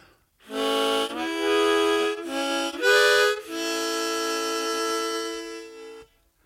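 A harmonica, one of several different ones, plays a few loud, reedy chords, three short blasts followed by one long held chord that fades out after about six seconds, with no talking.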